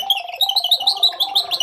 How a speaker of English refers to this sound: Um, Let's choose another one. I mean, it's the bird.